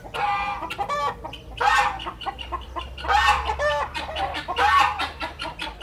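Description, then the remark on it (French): A Gaulois breed rooster in France clucks in a steady run of short, bright calls with a few louder, drawn-out squawks, over a low background rumble and no voices. “Le rêve, ce serait de pouvoir retrouver le coq partout en France, dans tous les départements, ce qui n'est pas le cas aujourd'hui.”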